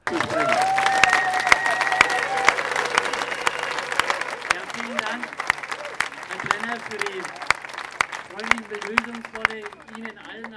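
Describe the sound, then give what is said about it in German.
A large outdoor crowd of many thousands of people at a rally on a square applauds steadily, dense clapping filling the air with occasional sharper claps and a few whistles, while indistinct voices carry through the noise. “Dankeschön, dass so viele tausend Menschen jetzt schon hier auf dem Platz sind.”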